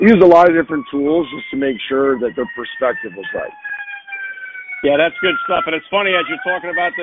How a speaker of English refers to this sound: There's an ambulance going on in the background. I know. I'm sorry about the background noise. I'm outside on the patio, and I got a, I got craziness going on behind me.